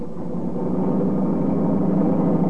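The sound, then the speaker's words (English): A car engine roars steadily and grows slightly louder as the car approaches at high speed at night, a dense low rumble with no voices over it. “Well, company coming. Seems to be traveling at quite a rate. Too fast even this time of night.”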